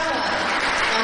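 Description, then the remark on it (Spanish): An audience applauds the music association Sociedad Fomento Musical de Navarres in a dense, steady wash of clapping that holds at an even, fairly loud level for the whole second, with no pauses or individual claps standing out. “Mira, los os aplauden y todo.”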